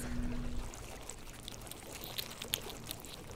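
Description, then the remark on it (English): Spider crabs blowing tiny bubbles inside a crab trap just drawn out of harbor water: a soft, wet fizz with scattered faint crackles and pops over a low watery background, quiet, with no talking. “We all peer inside as he draws his first cage out of the water, close enough to hear the spider crabs inside blowing tiny bubbles.”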